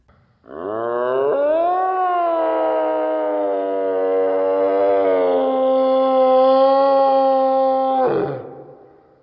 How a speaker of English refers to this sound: A misshapen figure filled the entrance, standing on two legs. A thing covered in hair shook and bent in odd ways. The antlers jutting from the top of its head scraped the stone ceiling and it screamed.